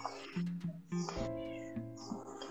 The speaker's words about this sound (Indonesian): Kucing diem dulu.